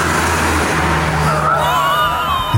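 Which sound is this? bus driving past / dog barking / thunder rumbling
bus driving past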